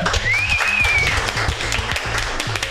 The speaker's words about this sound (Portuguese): Obrigado a toda a equipe que tem tá por trás. Obrigado mesmo. Salva de palmas, galera.